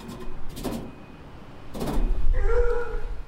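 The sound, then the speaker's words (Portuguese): Two short bursts of rattling metallic knocking on the metal plate covering a gate, spaced about a second apart, followed by a low rumble and a sustained tonal whine. No one speaks. “Começo a dar batidinhas na placa de metal que cobre todo o portão.”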